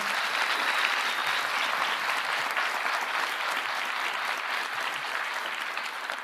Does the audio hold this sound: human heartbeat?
no